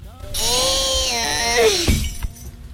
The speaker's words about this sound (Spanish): El anuncio típico en el que el niño tira el bote de mermelada y aparece la madre diciendo, ¿y ahora cómo solucionamos esto? ¿no?